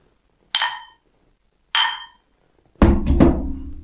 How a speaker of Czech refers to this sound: Ty vole, co si vám rozmrdal mobil.